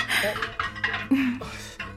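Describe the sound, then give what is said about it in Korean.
A backlog of piled-up dishes being washed: plates and cutlery clink and clatter in quick, uneven knocks over a steady wash of running water, with no one speaking. “밀린 설거지는 물론.”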